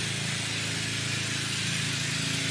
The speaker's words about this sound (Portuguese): tá passando um barco aqui, gente.